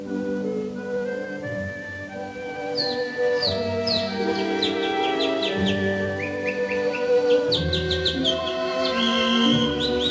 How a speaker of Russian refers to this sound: Сыплется величественный гром украинского соловья, и чудится, что и месяц заслушался его посреди неба.